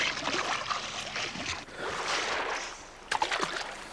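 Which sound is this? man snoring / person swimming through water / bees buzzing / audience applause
person swimming through water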